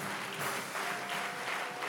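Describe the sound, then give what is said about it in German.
Steady applause from a church audience for people who have just come forward, a dense wash of many hands clapping continuously at an even level for a couple of seconds, with no voices standing out. “Komm, wir geben diesen Leuten nochmal einen Applaus, die sich gerade gemeldet haben.”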